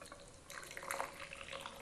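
Hot water is poured steadily over teacups and a teapot to rinse and warm them, some spilling beside; a splashing, trickling stream that swells in the middle and runs over hard surfaces, with no voices.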